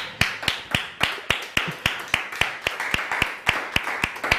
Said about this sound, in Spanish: Si se dan cuenta, cuando dije un aplauso para la suegra, como que no aplaudieron muchos acá.